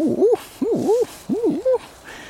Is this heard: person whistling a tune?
no